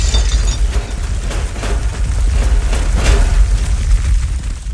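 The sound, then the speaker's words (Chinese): A bed and furniture in a room crash about violently, a loud, continuous low rumble punctuated by repeated heavy thuds and bangs for several seconds, with no voices. “突然之间，他听到房间里床跟家具乒乒乓乓剧烈晃动的声音。”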